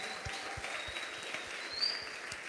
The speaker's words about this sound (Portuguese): Um aplauso a todos que estão vindo pela primeira vez.